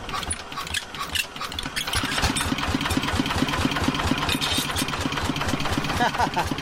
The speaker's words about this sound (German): Eine Frau macht vor der Tür ihrer Hütte den Abwasch und ein anderer Dorfbewohner schmeißt den Trecker an, um aufs Feld zu fahren.